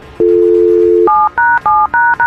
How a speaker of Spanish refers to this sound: Quédate en la línea telefónica, por favor, en silencio. Pon tu teléfono en mute, no hables. Ok, vamos a marcarle a ella.